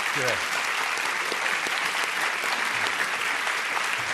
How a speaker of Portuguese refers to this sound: Tem que aplaudir, peraí, aplaude o cara.